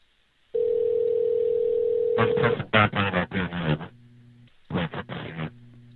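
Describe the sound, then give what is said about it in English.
A steady telephone tone gives way to a clipped, band-limited automated telephone voice answering dialed numbers, broken by low humming tones and another short recorded phrase. “I guess they heard the numbers. automatic voice.”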